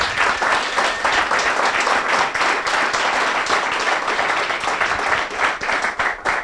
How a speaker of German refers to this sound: Bitte einen Applaus.